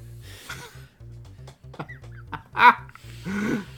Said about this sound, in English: We've let my dog put his mouth on this Wooper.